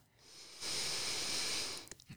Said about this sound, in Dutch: Even een goede ademhaling misschien. Tenminste, ik heb hem nodig.